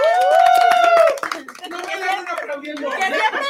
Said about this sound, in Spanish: Un aplauso